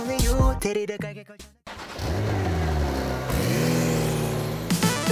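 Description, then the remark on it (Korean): A car engine revs loudly, its pitch climbing and dipping in a few surges, preceded by a burst of choppy sound and a brief pause. “아 엔진 소리 좋습니다 시원합니다 서울에서 여수까지 400km 국토 종단도 거뜬할 것 같은 시원한 엔진 소리로 두 번째 드라이브 출발합니다.”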